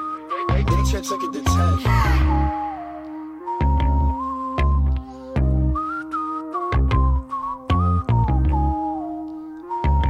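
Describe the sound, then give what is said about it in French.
A bright whistled melody with short sliding notes plays over a thumping, bass-heavy beat, recurring in phrases throughout the music without any talking. “Il a un beau sifflet.”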